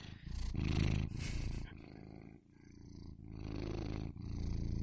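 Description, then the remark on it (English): A domestic cat named Steven purring, a steady low rumbling that swells and eases with each breath in a continuous rhythm, with no voices over it. “Okay, so this is Steven the cat.”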